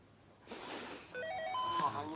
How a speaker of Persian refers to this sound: این چیه تایمره خاموشش کن